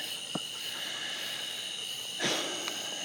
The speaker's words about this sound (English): I'm running with Kona at night down this country road. It's Wednesday night. And you can hear all the tree frogs. I hope you can hear them. I got my phone in a Ziploc. And uh, the cicadas.